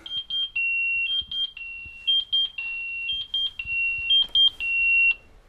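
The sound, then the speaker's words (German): A firefighter's pager alarm beeps loudly and insistently, shrill electronic tones alternating in a rapid, repeating pattern with brief steady sustained notes, alone without any talking. “Nicht immer ist es gleich eine Katastrophe, wenn der Piepser ruft.”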